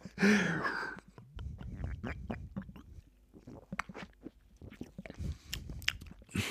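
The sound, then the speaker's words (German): Someone drinks a lime mint soda: a burst of fizz, then a string of short wet sips, swallows and crunchy mouth clicks, fairly loud and irregular, with no talking. “Jetzt gerade, wo ich trinke, merke ich es.”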